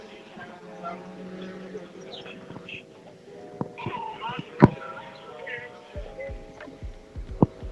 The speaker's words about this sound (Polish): Teraz jakaś dłuższa przerwa, ale w oddali słyszę kolejny samochód rajdowy.